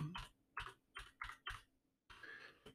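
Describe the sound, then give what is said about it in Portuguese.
Clacking of a Fox Gaming gaming keyboard being typed on: five crisp, evenly spaced keystrokes, then a brief pause and a quicker flurry of clatter. No voices. “O teclado do, do Fox a fazer.”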